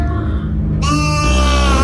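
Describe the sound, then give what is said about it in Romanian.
Loud, sustained bleating of sheep and goats at the opening of a song cover, with overlapping nasal calls that swell and brighten partway through and hold steady to the end, with no talking. “Intrarea a fost mai degrabă cu văcuțe și oițe și coprițe.”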